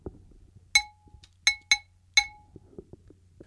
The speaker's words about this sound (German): Ja, und ich spiele, wie gesagt, den Blumentopf.